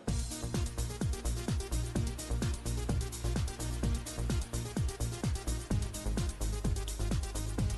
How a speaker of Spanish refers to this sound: Pero si escuchas, ¿escuchas la canción? Sí. Sí, me habías dicho, ¿no? Que salía esa rola.